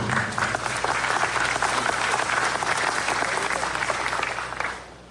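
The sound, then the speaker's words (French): A large audience at a gathering of Haiti's Protestant community claps loudly and steadily for the outgoing committee, a dense, sustained wash of applause that holds for several seconds before tapering off at the end. “Donc je vous prie d'applaudir très très fort, s'il vous plaît, le comité sortant.”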